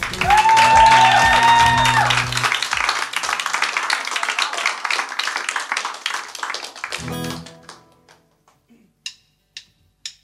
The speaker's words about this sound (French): Alors agitez-vous un petit coup et on les applaudit.